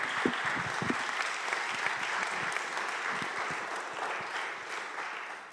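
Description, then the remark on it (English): An audience claps for a man who has just finished sharing, a dense, even wash of many hands that holds at a fairly loud level for several seconds, then begins to thin out at the very end. “Give him a, give him a cheer.”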